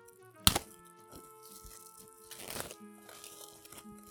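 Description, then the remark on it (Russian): The cellophane wrapping of a magazine being torn open: a sharp, loud rip early on, then quieter crinkling and a second rustling tear midway, with a faint steady hum underneath. “Он запакован в целлофан. Слышно, как шуршит? Запакован в целлофан. И сейчас, прямо на запись этого подкаста, я его распакую.”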